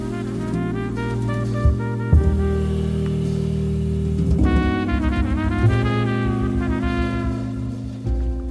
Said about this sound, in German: Schön jazziger Song, nice 5 Minuten plus Track.